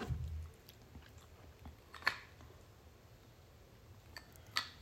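Someone chews Kentucky Fried Chicken, quiet wet mouth sounds broken by two crisp crunchy bites a couple of seconds apart, with no talking.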